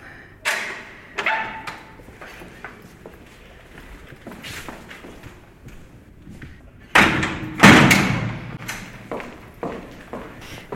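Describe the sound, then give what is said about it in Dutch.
A heavy metal prison security door, operated remotely by staff in the cell block, slams shut with loud, booming thuds near seven and eight seconds, preceded by several sharper clanks and knocks, echoing. “Deze deuren worden door de mensen in het cellulaire bediend. En er kan altijd maar eh, één deur tegelijk opengaan.”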